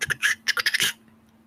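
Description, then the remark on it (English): A key scrapes and rattles in a door lock, a quick run of metallic clicks and rasps lasting under a second, then quiet. “You hear a key in the door.”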